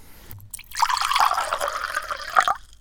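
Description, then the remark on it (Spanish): Water is poured into a glass in one steady stream of about two seconds, its splashing pitch rising as the glass fills, then stopping abruptly. No one speaks. “¿Tomamos un poquito más de agua?”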